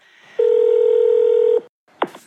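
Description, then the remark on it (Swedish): A telephone ringback tone sounds once during an outgoing phone call, a steady loud hum lasting just over a second, followed by a short silence and a sharp click as the line is picked up. “Vi ringde upp honom och eh, bad honom berätta lite grann hur han tänkte.”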